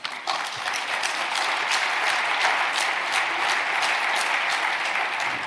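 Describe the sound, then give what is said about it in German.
An audience at a political discussion about electricity price zones bursts into sustained applause. Many hands clap in a dense, steady patter that stays fairly loud and even for several seconds, with no voices standing out above it. “Sie müssen aufpassen, wann Sie klatschen, weil jetzt könnte er was Gefährliches sagen.”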